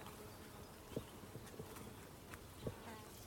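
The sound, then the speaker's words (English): Faint buzzing and whining of hoverflies outdoors among rushes, grasses and sedges, with a few brief louder passes against a steady low background hum, no voices. “You're getting the sounds of the hoverflies and whines of hoverflies.”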